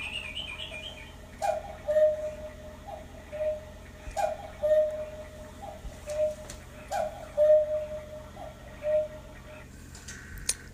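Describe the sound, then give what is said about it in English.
A cuckoo clock calls out its two-note cuckoo several times in a steady, evenly spaced rhythm, clear against a quiet hum, with no one talking. “Oh, there's my cuckoo clock.”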